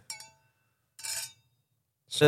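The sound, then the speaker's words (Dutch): Glasses of red wine clink together in a toast, a few bright ringing taps spaced out over a couple of seconds, fairly loud, with a short burst of voices at the end. “Oh, Nou, proost hè, op eh, eh,”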